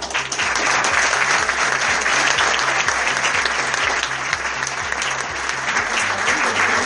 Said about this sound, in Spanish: Fuerte el aplauso ganador. Mejor guión en este segundo Festival de Cine Mercatense. Fuerte el aplauso.